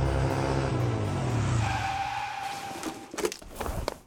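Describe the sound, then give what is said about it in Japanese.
A police car's engine roars and then fades, with a drawn-out tire squeal in the middle and a few sharp thumps near the end, as it skids to a stop arriving at a warehouse district on the outskirts of town. “ラブール警部はララ先生を乗せすぐにパトカーで郊外にある倉庫街にやってきました”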